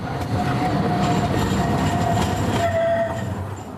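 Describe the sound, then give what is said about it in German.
A tram rumbles through the market square of Halle, Germany, loud and steady, with a thin high whine from its wheels running through, then the noise begins to fade away at the end. “Die Straßenbahn fährt mitten hindurch.”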